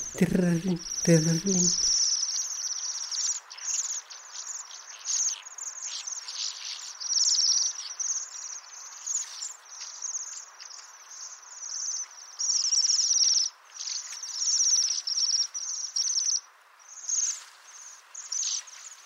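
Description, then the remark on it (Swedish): High, fine ringing bird calls trill on and off almost continuously, overlapping as if from several birds, with a short burst of lower sound at the very start. “Då har de ett sånt här liksom fint ringande. Tänk silverklockor, fina.”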